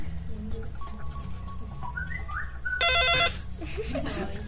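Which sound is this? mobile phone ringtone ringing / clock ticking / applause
mobile phone ringtone ringing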